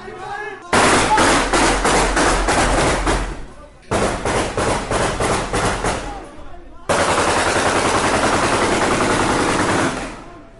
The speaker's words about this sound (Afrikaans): Skote is vir meer as 'n halfuur lank in die lug gevuur terwyl hy onder ons in die voorportaal van die hospitaal uitgebreek het.